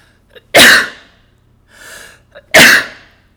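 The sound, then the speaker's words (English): Two loud sneezes about two seconds apart, each preceded by a quick sharp inhale, with a softer breathy exhale between them. “I think I'm going to sneeze.”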